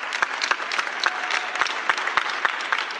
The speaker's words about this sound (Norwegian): De forteller jo at de, de sitter jo alle inne i sine leiligheter. Der bor de jo tett og i blokk, veldig mange. Eh, de er blant dem som går ut og klapper på balkongen sin, og det er det de har av sosialt stimuli hvis ikke de bor sammen med noen andre.